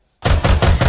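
After a brief silence, someone pounds loudly on a door close by, about four heavy, rapid knocks in an even, urgent rhythm.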